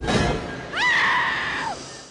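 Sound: scream sound effect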